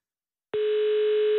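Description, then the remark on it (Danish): After a short silence, a telephone ringing tone begins as a call is placed: a single steady electronic note, loud and clear, held unbroken until the end with no one picking up. “nu ved jeg slet ikke, hvem vi ringer til nu.”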